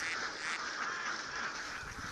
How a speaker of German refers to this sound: Reisbauern von China bis Thailand lassen zehntausende khakifarbene Campbell-Enten auf ihre Felder los.